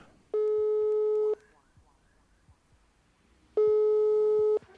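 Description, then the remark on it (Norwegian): Two rings of an outgoing phone call's ringback tone, calling a producer from Bergen, each a steady, loud beep lasting about a second, separated by a pause of a couple of seconds, with faint background noise in between. “Jeg tenkte vi skulle ta og ringe opp min eh, buddy … fra Bergen, som eh, har blowet opp som eh, producer det siste året i USA.”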